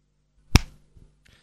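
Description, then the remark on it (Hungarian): A single sharp hand clap, used to answer yes-or-no questions, rings out crisp, followed by a short decay and a couple of faint, soft knocks. “Egy taps igent jelent, a kettő pedig nemet.”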